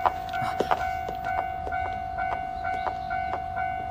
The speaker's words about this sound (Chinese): 火车轰隆隆的驶过，就如同桂树的心脏声。